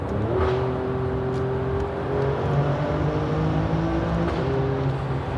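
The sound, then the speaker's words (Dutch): An Alfa Romeo Stelvio Quadrifoglio SUV engine revs steadily in a tunnel, a loud, continuous droning roar whose pitch rises and settles in waves for several seconds, with no voices over it. “Even het geluid laten horen. Dit is wel ja, echt de enige SUV die echt heel leuk is om te sturen.”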